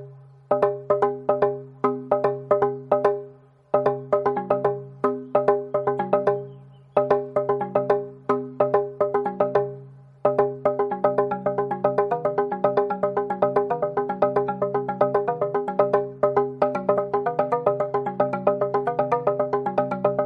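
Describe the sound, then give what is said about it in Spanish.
A txalaparta is played: rapid wooden strikes with ringing, pitched tones in an interlocking rhythm, pausing briefly twice before launching into a faster, denser passage. No voices. “El origen y la historia de la txalaparta”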